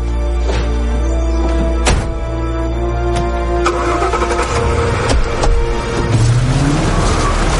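A man gets into a car. A few sharp clunks follow, then the car engine rumbles steadily and revs up, its pitch rising as the car speeds away from a ranch, raising a cloud of dust. No one speaks.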